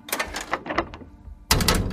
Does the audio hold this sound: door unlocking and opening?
yes